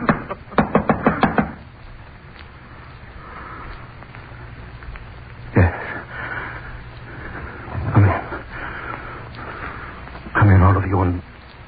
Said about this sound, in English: I knocked on the door.